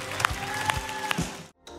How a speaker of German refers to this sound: Kann man lass uns dir mal einen Applaus geben und wir gehen zusammen noch mal eine Song.